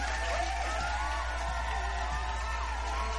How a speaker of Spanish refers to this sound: Claro que sí, van un pinche aplauso.